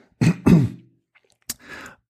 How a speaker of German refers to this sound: Ich muss mich einmal wegdrehen und mich einmal räuspern, Entschuldigung.